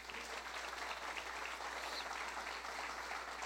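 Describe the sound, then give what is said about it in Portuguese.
An audience applauds for the Lord Jesus, dense clapping from many hands at a strong, even level for a few seconds with no one speaking over it. “Querido, dê um aplauso ao Senhor Jesus.”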